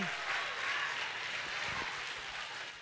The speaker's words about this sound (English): As a matter of fact, clap your hands right now and celebrate the joy